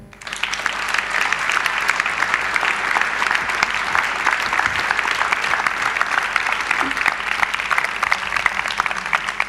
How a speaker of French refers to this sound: Je vous demande d'applaudir monsieur Pierre Lurton.